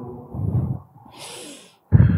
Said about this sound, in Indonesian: Tahan nafas saat sujud. Tahan nafas, ambil nafas gitu kan terus hembuskan pakai mulut.